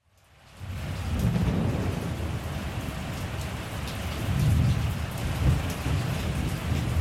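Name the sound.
thunderstorm with heavy rain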